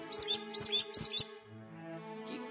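A pet dog's squeaky toy squeaks several times in quick succession, shrill, then lets out a softer, drawn-out wheeze as it deflates. No one speaks.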